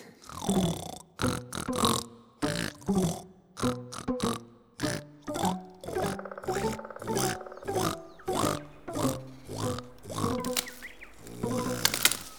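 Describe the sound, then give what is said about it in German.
Loud, throaty snoring, a rapid series of rough voiced snorts repeating steadily for several seconds with no talking over it. “Ja, und eine Weile wirst du nicht mehr viel von ihm hören. Außer seinem Schnarchen.”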